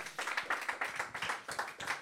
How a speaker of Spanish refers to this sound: Alguien puede darle un aplauso fuerte al Señor.